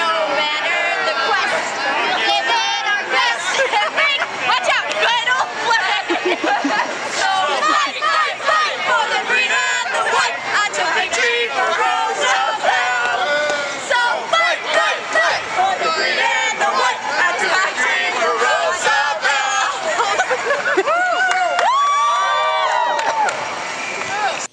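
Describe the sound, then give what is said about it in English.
A crowd at the 2015 pride parade cheers and chatters, with many overlapping voices, scattered shouts and whoops rising above a dense, steady babble that stays loud for the whole stretch. “That was a little bit, and you can hear a little bit of the action during this year's 2015. Just a little barely pride parade.”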